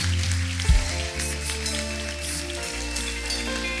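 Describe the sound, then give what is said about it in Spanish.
A church audience applauds for the Lord in a dense, steady wash of clapping that lasts throughout, with held low musical tones sustained underneath. “Vamos a darle fuerte ese aplauso al Señor.”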